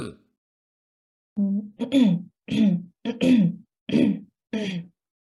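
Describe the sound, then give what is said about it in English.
A person clears their throat in a series of about six short, voiced rasps with brief gaps between them, fairly loud, after a moment of quiet. “Um, so try clearing your throat briefly, like.”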